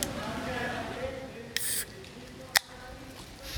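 A short hiss of gas escaping as a bottle is twisted open, followed by a sharp click, over a low, steady background murmur.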